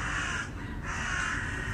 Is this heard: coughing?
no